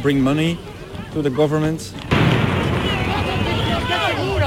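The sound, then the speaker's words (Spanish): Loud outdoor crowd noise at a violent street protest with raised voices shouting, then a sudden sharp firecracker bang followed by a dense roar of commotion, with shouting continuing over the turbulent din. “ese era el sonido de esa manifestación.”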